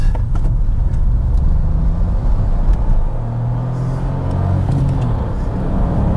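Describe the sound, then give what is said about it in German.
A three-cylinder car engine revved out while accelerating hard away from a toll booth: a loud, steady low droning rumble with a gruff throbbing tone that holds throughout, with no voices. “Okay, jetzt hört man den Dreizylinder. Wenn man wirklich ausdreht.”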